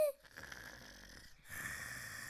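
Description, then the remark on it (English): A person imitating a grandmother snoring, done on request during the reading of a children's story: one raspy, breathy snore, a brief pause, then a second, slightly louder rasping breath. Nobody talks. “A dreaming child on a snoring granny on a cozy bed in a napping house where everyone is sleeping.”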